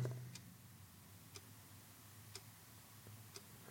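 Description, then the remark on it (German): A clock ticks steadily, one sharp tick about every second, faint and a little distant over a low hum in an otherwise quiet room. Nobody speaks. “vom Ticken der Uhr”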